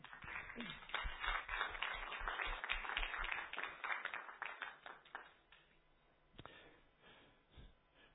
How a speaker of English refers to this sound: You stand up and give them a round of applause as they come up.